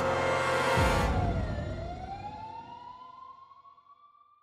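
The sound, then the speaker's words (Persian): Police sirens wail loudly, their pitch sweeping down and then rising again in a long glide over a heavy rumble, gradually fading as the vehicles seem to move off. “ناگهان صدای آژیر ماشین های پلیس به هوا برخاست”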